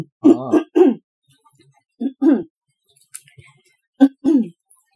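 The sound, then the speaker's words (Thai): A person with a dry throat, after som tam (papaya salad) got stuck in it, coughs and clears their throat in short, harsh bursts, grouped into three clusters with pauses between, fairly loud with no talking. “คอแห้งอ่ะ เปล่า กินส้มตำแล้วมันติดคอ”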